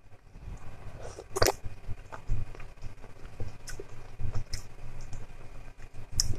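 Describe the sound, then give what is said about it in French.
Chewing a piece of cooked endive, tasted to check whether it is done, slightly crunchy: soft irregular crunches and wet mouth sounds repeating at an uneven rhythm, with a few sharper crisp bites standing out. No talking. “Euh, je goûterai bien un petit morceau d'andy voir si c'est cuit quand même.”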